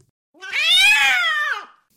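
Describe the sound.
A person imitates a cat's howl: one drawn-out, loud wail that rises in pitch and then slides back down, lasting over a second, with no talking around it.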